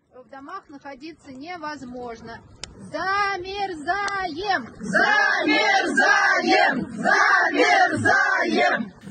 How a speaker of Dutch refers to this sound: Ja, je hoort hier een groep vrouwen Zamerzajem roepen. En dat betekent we bevriezen. Maar niet in Oekraïne, zoals je misschien zou verwachten, door alle raketaanvallen van de Russen, maar in Rusland.